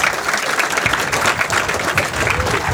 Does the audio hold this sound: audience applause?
yes